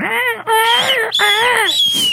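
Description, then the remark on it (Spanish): A person mimics seagull cries with three loud, drawn-out wailing calls, each rising then falling in a high, nasal pitch, one after another with brief breaks. “Entonces te quedas solo y no escuchas nada más que el mar, el aire y las gaviotas haciendo ahí...”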